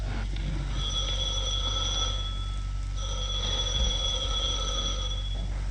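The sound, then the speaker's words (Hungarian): A telephone rings in two long, steady bursts separated by a short pause, clear over a low background rumble: an early-morning wake-up service call waking a sleeping office worker. “Jó reggelt, itt az ébresztő szolgálat. Tessék fölkelni.”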